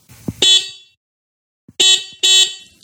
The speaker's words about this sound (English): what I would call a car horn, something that sounds like, you know, maybe it sounds like an imported car, you know, maybe like a Honda from the 1980s or something, but you can get USB rechargeable uh, horns that sound pretty much like a car.